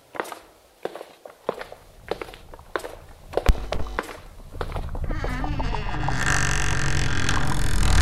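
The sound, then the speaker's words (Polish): Slow, steady footsteps of two hunched figures, heard from afar, thud closer and louder over several seconds as they approach a laboratory, then a dense droning buzz swells in and grows, nearly burying the steps by the end. “Z oddali słychać kroki. Powoli zbliżają się dwie tajemnicze, przygarbione postacie.”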